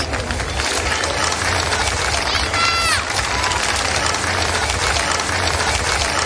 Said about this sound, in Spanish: Don Felipe y doña Leticia han visitado la zona, han agradecido el trabajo de los servicios de emergencias. Dos vecinos les han recibido con aplausos.